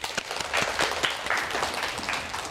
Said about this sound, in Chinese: 大家掌声有请。